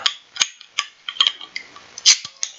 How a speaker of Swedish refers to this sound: Eh, jag tänkte nej, men vi, vi startar med en eh, Norrlands tror jag ja, faktiskt. men det tycker jag. Där har du kapsylöppnaren. Ja. Så får du gärna öppna dem båda.